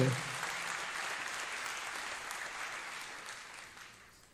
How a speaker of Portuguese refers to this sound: Quem recebe esta palavra, aplauda o nome do Senhor.